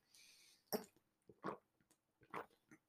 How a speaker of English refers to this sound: Excuse me. I'll take a sip of water here. I'm parched.